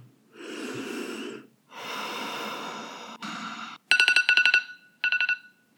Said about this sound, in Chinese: 早上六点十五分被闹钟叫起。再让我赖床一下下，到六点半就好。早上六点三十分，闹钟又响了一次。